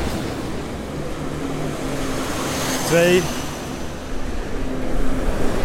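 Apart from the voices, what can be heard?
trucks driving past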